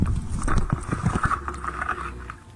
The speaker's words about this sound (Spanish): Entonces está entrando agua limpia, estamos dejando fuera las pajitas, los insectitos, los bichitos y bueno, esta agua es mucho más limpia, mucho más pura. Seguimos bombeando hasta llenar la botella, de preferencia de lo más al fondo posible. ¿no?